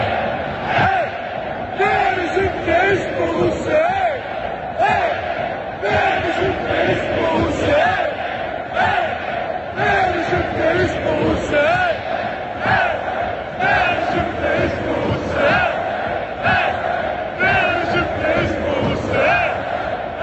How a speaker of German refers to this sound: So haben sie gefeiert, den Sieg gegen den VfL Bochum, die Schalker.